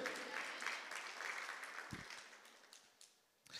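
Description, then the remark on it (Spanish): An audience bursts into sustained applause for the Lord, a dense crackle of many hands clapping that holds steady, then thins and fades toward the end, with a low thump partway through. “Dale un aplauso al Señor, porque Dios va a derramar hasta que sobreabunde.”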